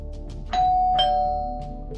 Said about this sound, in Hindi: मैंने जब शशांक के घर की डोरबेल बजाई